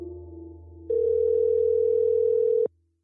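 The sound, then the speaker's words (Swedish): A telephone line tone while calling the phone numbers listed for Johan Elias: a low steady hum steps up to a louder, higher continuous tone that holds for a couple of seconds, then cuts off abruptly. No voices. “Jag söker Elias på de telefonnummer som står listade i boken och via hans arbetsplats. Jag får inga svar.”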